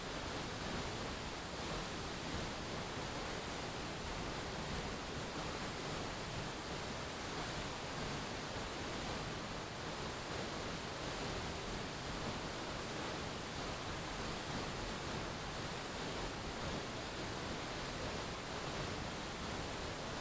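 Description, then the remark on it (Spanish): A waterfall pours steadily, its dense rushing roar continuous and unchanging for the whole stretch, full with no voices or other sounds. “una gran oscuridad se posó sobre el territorio y usó las aguas de esta cascada como el desagüe de una mina de azufre”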